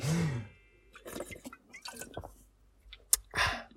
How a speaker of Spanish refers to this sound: Aprovecho también este momento de morirme para beber un poquito de agua, que es lo que dije la semana pasada. Vamos a hacer una pausita y vamos a beber agua, porque eso es súper chuli, stay hydrated.